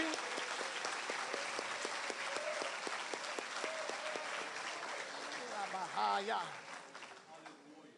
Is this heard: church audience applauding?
yes